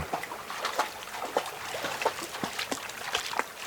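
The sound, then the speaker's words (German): Water trickles and babbles steadily, with small irregular splashes and gurgles popping out every half second or so over a constant watery hiss. No voices. “Immer wieder stoßen wir auf kleine Seen oder Bäche, aus denen die Pferde trinken können.”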